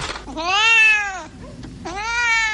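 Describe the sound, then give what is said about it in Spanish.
A black cat meows twice, each a long, drawn-out, wavering cry with a short pause between them, loud with no other sounds around it. “Ante un gato negro.”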